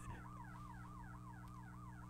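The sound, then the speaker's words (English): An emergency siren wails in a fast, repeating warble, rising and falling several times a second, steady and continuous over a low engine-like drone, with no one talking. “There's a really loud siren.”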